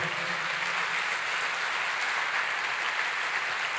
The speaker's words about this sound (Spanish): ¿Cuántos dicen amén? Démosle fuerte ese aplauso al Señor.